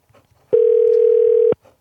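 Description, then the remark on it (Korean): A single steady telephone ringback tone lasting about a second, loud and clean with sharp on and off edges, framed by faint background rumble before and after, as a call is placed to a listener during the radio show Lee Eun-ji's Gayo Gwangjang. “걸어보자고요.”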